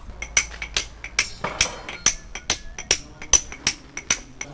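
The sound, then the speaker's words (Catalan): A hammer strikes a chisel against stone in a steady, brisk rhythm, about a dozen sharp blows, each with a bright metallic ring, carving a stone cornice that will go at the top of a bell tower, above its twin (geminate) windows. No one speaks. “Aquesta serà una, una cornisa que irà mm, a dalt del campanar, de sus de les finestres geminades que estem eh, picant”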